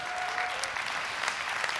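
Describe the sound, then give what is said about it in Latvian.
An audience claps steadily, a dense wash of many hands with scattered sharper claps standing out, fairly loud and sustained throughout without any voices. “Dosim aplausus viņam!”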